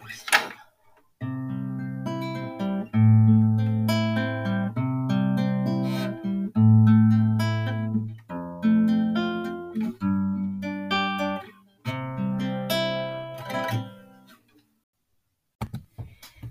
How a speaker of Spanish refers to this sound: Eh, me encanta... Eh, tocar esta canción en la guitarra y eh, me gusta escucharla. Tengo mi guitarra aquí y es muy fácil.